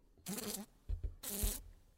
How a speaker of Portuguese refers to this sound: de vez em quando, aquela angústia muda, quando acompanhava, fascinada e impotente, o voo da mosca em torno do bolo.